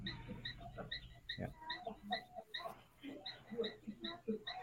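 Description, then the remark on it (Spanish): Frogs call steadily in the background, a rapid series of short, evenly spaced chirping croaks that continue throughout, with faint low murmuring underneath. “si escuchan unas ranas por ahí, es que así la Sí, sí.”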